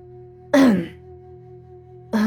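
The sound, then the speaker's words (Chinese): A throat is cleared in a short, rough burst, followed after a pause by the start of a second one that cuts off. A steady low hum runs underneath, and no one speaks. “苗小红清了清嗓子说道”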